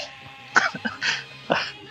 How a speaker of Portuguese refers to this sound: Peraí que eu tive um ataque, um ataque de tosse com essa piada.